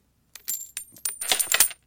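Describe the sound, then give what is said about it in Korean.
Several coins drop and jingle, a quick cluster of bright metallic clinks over under two seconds, fairly loud, with a brief ringing shimmer as they settle. “어, 이거 동전이 짤랑짤랑 떨어지는 소리 같은데 한번 다시 한번 들어볼까요?”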